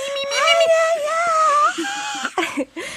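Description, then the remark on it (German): A voice imitates a quiet, held-back punk scream: a strained, wavering high cry held for over a second, followed by a few short choked bursts. The sound is fairly restrained. “Und dann saß ich so auf meinem Bett mit der Akustikgitarre und war immer so, weißt du, weil das war das Schreien, aber ich konnte halt nicht schreien, weil ich so,”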